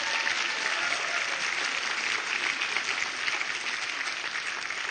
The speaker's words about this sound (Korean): 그렇게 하고 우리 숭실 오비 남성 합창단 너무 감사드립니다. 그리고 사랑원이 합창단 그리고 우리 이 많은 곡을 다 외우신 우리 큰 언니들께 우리 다시 한번 큰 박수 드리겠습니다.